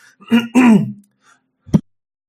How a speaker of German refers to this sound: So, jetzt muss ich kurz husten. Boah, eine Sekunde noch. So, jetzt bin ich wieder da bisschen krank. Nicht schlimm.